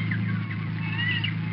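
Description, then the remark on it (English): Seagulls crying, a few thin, wavering high calls drifting over a steady low droning hum, with no one speaking. “That was the cry of a seagull.”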